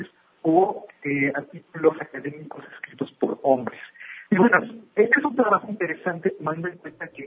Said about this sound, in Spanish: tenemos unos problemas con la telefonía celular. Te marcamos en un minuto para que, a ver si se compone, si la podemos limpiar un poquito la llamada.